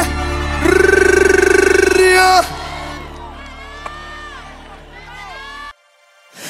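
A crowd cheers and whoops loudly, with a sustained group shout rising early, then scattered rising whoops and yells continuing before cutting off abruptly.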